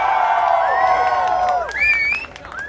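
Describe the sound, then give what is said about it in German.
An audience at an evening event in St. Pauli cheers loudly with rising whoops and high shouts over steady clapping, a dense, continuous roar of applause and excited voices for a few seconds. “Deswegen nochmal einen Riesenapplaus”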